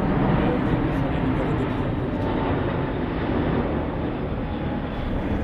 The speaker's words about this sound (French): Ouais, c'est énorme. Hein. Voici la 380. Mais il passe à combien de mètres au-dessus de vous là Ah, 500 mètres quand même. On, lit les numéros hein, sur les ailes hein, quand même.